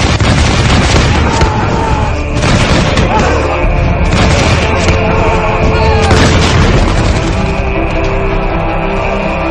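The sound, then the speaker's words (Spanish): Loud, dense battle noise: repeated booming cannon blasts and crackling arquebus gunfire overlap continuously, with heavier bursts recurring every couple of seconds and a constant rumbling din underneath. “que hasta los arcabuceros desmontaron para unirse a nosotros, disparando con todo lo que tenían.”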